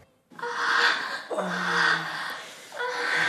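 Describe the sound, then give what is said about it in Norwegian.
Heavy, drawn-out breathing with breathy gasps and moans from online pornography, three long exhalations in close succession after a brief silence, loud with no speech. “Hvis dette er lyden som kommer fra husets PC, og barnet ditt sitter ved tastaturet, hva gjør du da?”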